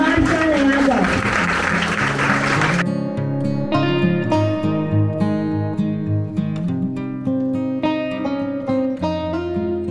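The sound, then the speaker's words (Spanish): A burst of audience applause, dense and fairly loud, for the team that made the Marca de Agua exhibition possible, lasts a few seconds before cutting abruptly into steady instrumental music that carries on to the end. “Así que regálenme un fuerte aplauso a todo este equipo maravilloso que hizo posible esta exposición el día de hoy.”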